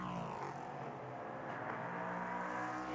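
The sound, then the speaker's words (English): Dakota Dickerson's prototype race car accelerates past as its engine roars and whines at high revs, loud, holding a steady, buzzing pitch for a few seconds with no voices over it. “Now Dickerson by, and now he'll have to work past another lap car.”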